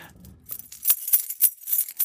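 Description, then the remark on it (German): Christmas bells jingling in a series of bright, shimmering shakes, about six bursts in an uneven rhythm, fairly loud and crisp, with no voices. “Ihr habt es am Anfang an, dem, an den Glocken.”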